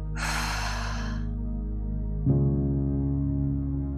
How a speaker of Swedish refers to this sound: Nu tar vi ett djupt andetag igen. Vi andas in styrka och tacksamhet. Håller andetaget. Och andas ut oro och tvivel.